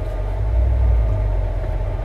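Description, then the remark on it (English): A truck engine rumbles low and steady, a continuous deep drone with a slight swell in the middle as it works at low speed while the truck is backed up onto a small curb. No one speaks. “But anyway, guys, I'm trying to back this fucking truck up on this little itty bitty ass curb.”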